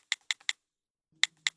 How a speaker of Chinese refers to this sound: 拜托，你这打字也带大喘气的。